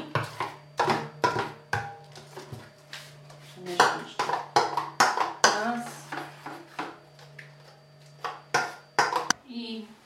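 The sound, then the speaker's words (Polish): A mixing bowl of batter is set down on a stove burner beside a frying pan, amid a run of sharp clinks and knocks of dishware against metal, over a faint steady hum. “Aby ułatwić sobie smażenie, miskę z ciastem stawiam sobie na palniku obok patelni.”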